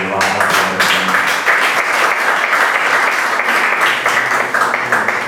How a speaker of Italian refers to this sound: E eh, in secondo luogo ringrazio i volontari della Proloco di Pianaccio che hanno deciso quest'anno di tenere aperto, nonostante tutto, questo bellissimo centro visita solo attraverso il piano di volontariato, quindi davvero un grande applauso.